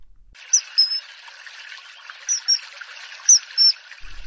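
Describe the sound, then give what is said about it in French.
A kingfisher gives three pairs of sharp, high, piercing whistles, spaced a second or so apart, over a steady rush of flowing water. “Ledniatchek, c'est en premier lieu un volatile un martin pêcheur, oiseau de la famille des alcénidés facilement reconnaissable par son plumage bleu vif pour la partie supérieure et roux pour la partie inférieure, avec une tête mouchetée”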